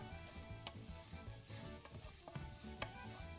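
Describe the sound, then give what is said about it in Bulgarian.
A pan sizzles steadily after a full handful of an ingredient is added, while a utensil stirs it continuously for about a minute, with periodic sharp scraping clicks against the metal roughly every half second to second. Moderately loud, no voices. “Бъркам без да спирам отново за около минута.”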